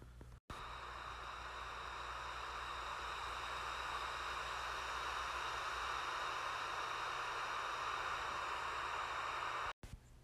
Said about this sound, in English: That was the sound of wind blowing through trees, and uh, the sound just makes me like happy overall.